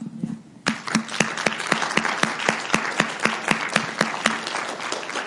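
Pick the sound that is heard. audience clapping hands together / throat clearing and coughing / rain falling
audience clapping hands together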